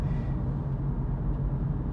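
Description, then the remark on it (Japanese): A steady, low rumble fills the cabin of a moving car used as a shuttle vehicle in rural Kochi Prefecture, Japan, an even droning road and engine noise with no voices and no change in level. “一番代表的なのが車、まあ、まさにこうやって送迎車としてね 車乗ってるわけなんですけどあの 車ってまあ当然あの高知県のねこんな田舎ではねあのないとなかなか生活がしづらいものなんですけど”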